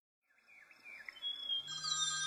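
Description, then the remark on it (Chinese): At six in the morning, the sister's mobile phone rings with a bright electronic ringtone. Its melodic tones rise after a short silence and swell into a denser, louder chime, with no one speaking. “清晨六点钟，姐姐的手机突然响起。”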